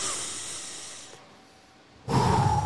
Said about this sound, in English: like breathing in slow, like you know what I mean.